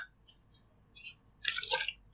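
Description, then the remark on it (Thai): Small wet sips and slurps of water, a few soft clicks followed by a louder, longer slurping burst near the end, with no talking. “ขออนุญาตจิบน้ำนิดนึงอ่ะก่อนจะเปิดประเด็นนะครับ”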